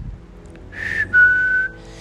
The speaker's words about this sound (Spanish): Horacio escuchó algo así como un silbido